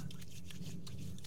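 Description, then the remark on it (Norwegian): Wet squelching and rubbing of hands working in alcohol hand sanitizer gel, a few short sticky bursts over a steady low hum, with no one speaking. “Det er lyden av antibac.”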